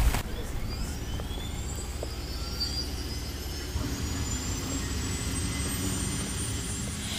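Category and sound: vehicle, helicopter taking off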